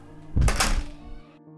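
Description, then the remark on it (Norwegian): A classroom door is swung shut by teachers with a solid, heavy thunk, fairly loud, followed by a brief low rumble fading into a quiet hum. “Lærerne gikk inn i klasserommet sitt, og så lukket de døren.”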